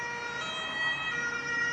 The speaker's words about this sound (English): Then he hears the sound of sirens, and the sound is getting louder.